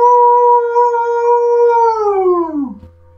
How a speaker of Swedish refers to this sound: Ja, ni hör när eh, ett ylande